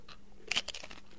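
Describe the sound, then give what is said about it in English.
A bite into chicken liver parfait gives a short, soft crunch, a couple of quick crackly bursts with faint chewing rustle around them, and no one speaking. “okay, let's have a taste. It's time. The proof is in the eating.”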